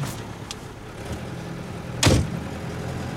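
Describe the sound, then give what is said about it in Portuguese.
A truck door shuts with a single solid thud as a man gets into the truck in a dry, drought-stricken area, preceded by faint rustles and clicks, over a steady low background rumble. No one speaks. “Ranulfo entra no caminhão.”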